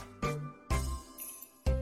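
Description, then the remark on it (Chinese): A doorbell at Grandpa Bear's house in a children's story, pressed by a little monkey, chimes with three bright, ringing tones in quick succession, each struck sharply and then fading, with no voices present. “熊爷爷听见有人按门铃，就踢踏踢踏的走来开门。”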